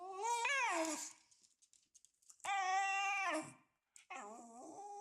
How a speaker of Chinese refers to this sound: 反正就是这个声音，然后这个声音其实就是原本它是柴犬的声音。